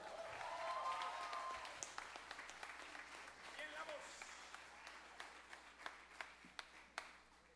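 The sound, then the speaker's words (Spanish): An audience in Tlatelolco, Mexico City, applauds a band's keyboard player as he is introduced, starting as a dense, steady roar of clapping with some cheering voices, then thinning out to a few scattered, distinct claps near the end. “Un aplauso.”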